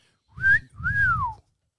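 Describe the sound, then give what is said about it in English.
A two-part wolf whistle, a person whistling at someone in the street: a short rising note, a brief gap, then a longer tone that rises and slides down, loud with some breathy low rumble beneath. “People will whistle at you in the streets.”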